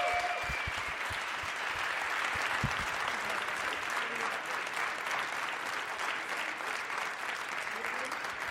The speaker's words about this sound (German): Ein Applaus! Applaus!